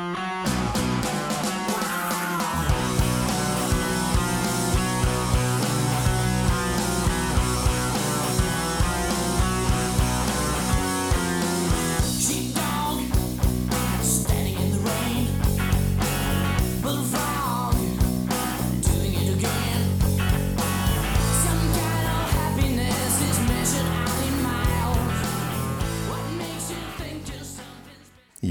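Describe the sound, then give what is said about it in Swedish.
A garage rock cover plays loud and steady, with driving drums and raw, buzzing guitars filling the whole stretch before fading slightly at the very end. No one talks over it. “Det är garagerock det här.”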